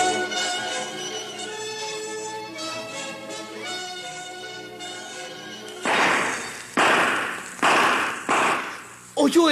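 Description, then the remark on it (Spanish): Gunshots ring out at a cabin after a tonal musical passage, roughly five loud, sharp bangs in quick, slightly irregular succession, each with a short ringing decay. “Fueron balazos.”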